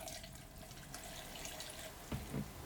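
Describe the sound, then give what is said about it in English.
RV antifreeze is poured steadily down a kitchen sink P-trap drain, a continuous splashing trickle with a couple of brief louder gurgles near the end and no voices. “And finally, step 20, pour some RV antifreeze down the kitchen sink P-trap”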